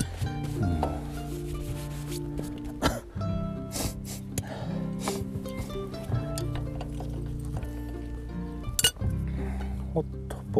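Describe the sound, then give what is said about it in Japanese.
Metal parts clink and scrape a few times at irregular moments over a steady low hum with occasional voices in the background, while parts are replaced on a nagaimo (Chinese yam) digging machine, loosening bolts and tensioning the chain. “長芋掘り機の部品交換をしながら駄弁り”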